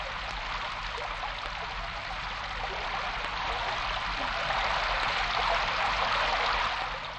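rain falling

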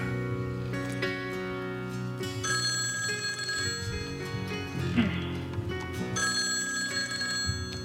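telephone ringing

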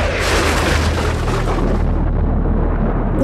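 thunder

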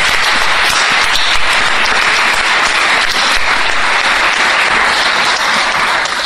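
audience applause

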